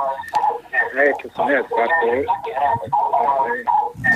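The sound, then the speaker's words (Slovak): Speech over a thin, band-limited phone line, with the voice seeming to double back on itself as an echo while someone talks continuously. “máme tu nejaké echo.”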